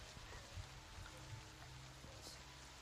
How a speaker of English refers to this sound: Rain begins to fall on your position as you continue making your way down this winding road until you come to a good place for camping.